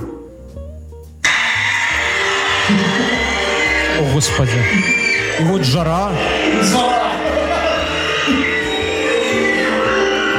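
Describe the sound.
After a second of near quiet, a pop song with a sung vocal kicks in abruptly through an Alice smart speaker and keeps playing loudly and steadily to the end.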